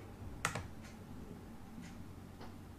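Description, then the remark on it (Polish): A handful of sharp computer clicks as the Comtech and Submit buttons are clicked, a double click near the start, then a few fainter, sparse taps spaced out over a quiet background with no talking. “Nie, czekaj, jeszcze raz klikam Comtech. Klikam Submit.”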